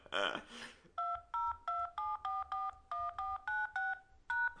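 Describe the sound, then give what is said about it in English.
A brief noisy burst, then a quick, steady run of about ten touch-tone keypad beeps, each a short dual-pitched tone, clear, as a destination voicemail mailbox number is punched in. “Please enter the destination mailbox number, then press pound.”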